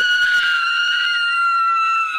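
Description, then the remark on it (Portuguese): A single piercing, high-pitched scream from a kitchen holds steady for about two seconds, loud, with a brief scuffle of low noise at its start. “A conversa foi interrompida com gritos que vinham da cozinha.”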